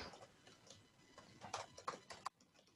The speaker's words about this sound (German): Man hört ja richtig schön Tippen im Hintergrund. Tut mir leid.